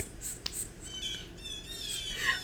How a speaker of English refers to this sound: What is that? Oh a bird. Oh my god. Must be feeding time. are they not gonna stop? Why won't they stop?